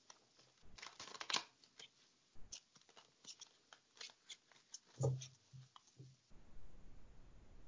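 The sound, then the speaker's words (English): Crisp riffling and flicking of a deck of tarot cards being shuffled for a general spread reading, with quick bursts of papery snaps and slides, then a steady soft shuffling hiss toward the end. “Right, so now I'm shuffling for those of you who can't see.”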